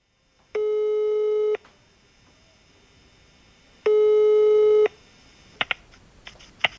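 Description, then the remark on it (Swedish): An outgoing phone call to a tennis match coach: the ringing tone sounds twice, each steady buzzing beep lasting about a second with a pause between, followed by a few sharp clicks as the line picks up. “så ringer vi, ringer vi Martin och eh, ser vad han eh, svarar”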